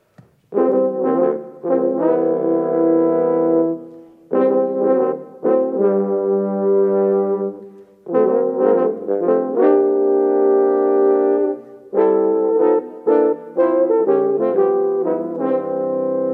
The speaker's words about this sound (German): Dieser Dämpfer nennt sich Bucket Mute, also wie ein Eimer. Sieht nicht ganz aus wie ein Eimer, aber es heißt Bucket Mute tatsächlich und ähm, es erinnert so ein bisschen an ein gestopftes Waldhorn. Hören wir das einmal als Section.